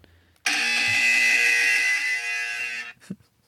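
A single loud, harsh electronic buzzer blares steadily for about two and a half seconds, dense and raspy with strong high overtones, then cuts off abruptly.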